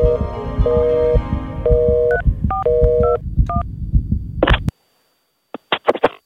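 A landline house phone in a Dutch woman's home being dialed by a girl calling her father: a quick series of clear keypad tones over a low, rhythmic rumble, followed by short bursts of crackly line noise after a brief silence.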